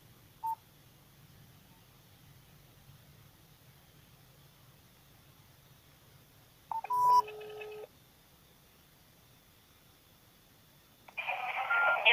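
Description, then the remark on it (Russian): Touch-tone beeps of a phone number being dialed to call city Duma deputy Lyudmila Buzunova: a brief early beep, then a quick cluster of tones, followed by a burst of hissy line noise at the end. “Звоним.”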